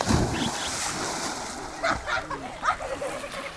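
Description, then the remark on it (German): Children splash in river water in the community of Cravedo, surrounded by coastal forest and rivers, with irregular bursts of sloshing and spray over a steady wash of flowing water and light wind, plus faint voices in the background. “Die heutige Gemeinde Cravedo ist umgeben von Küstenwald und Flussläufen. Kinder planschen im Wasser, Schmetterlinge flattern durchs Gebüsch.”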